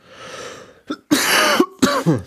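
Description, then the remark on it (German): A harsh, raspy coughing fit: a wheezy intake, then a short cough followed by two longer, rough bursts in quick succession, with no talking. “Der Husten ist auch, der ja. war wirklich, der, ähm, der war auch echt übel.”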